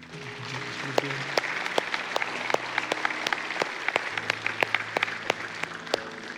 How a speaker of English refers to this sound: Hey, can we give God a round of applause?